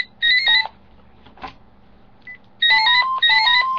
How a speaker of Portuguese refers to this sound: Desculpa, o telefone está tocando aqui, eu não sei como desligar isso.